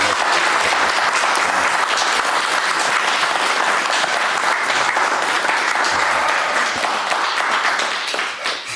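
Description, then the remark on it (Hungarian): Sustained studio audience applause for guest Tamás Deutsch, Fidesz Member of the European Parliament, a dense, steady wash of many hands clapping at once for about nine seconds, loud throughout and tapering slightly at the very end, with no voices standing out. “Az a jó, hogy sokat tetszenek tapsolni, mert addig se kell beszélnem, mert nem nagyon tudok.”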